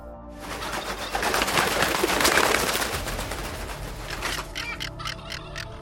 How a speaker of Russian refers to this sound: Загоготав, низко пролетели птицы.